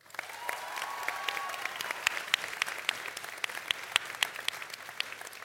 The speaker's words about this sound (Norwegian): Gi dem en varm applaus!